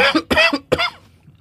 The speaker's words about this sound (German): Weil manchmal kommt dieses Husten immer hoch. Ist okay.